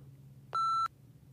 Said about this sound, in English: But at one point, the phone in the kitchen just kept beeping like it was paging the phone being off the receiver.